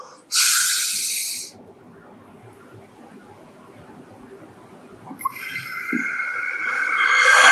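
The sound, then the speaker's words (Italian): Forceful, hissing breaths of a breathing exercise focused on the chest and belly: one sharp exhale, a quiet pause with low murmuring, then a longer, strengthening rush of air building toward the end. “Quindi spiego che bisogna mettersi in una posizione magari anche in piedi o da seduti, mani sulle ginocchia così, ci concentriamo sul petto, sulla pancia e iniziamo a fare dei respiri belli forti, quindi tipo”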